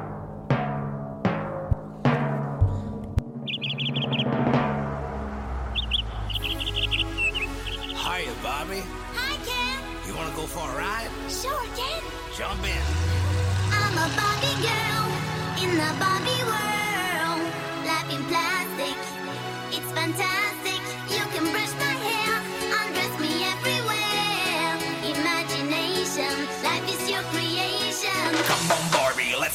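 An upbeat 90s Europop dance track plays, opening with a few sharp percussive hits before a bouncy synth-driven groove with steady beat and bright melody kicks in, loud and continuous.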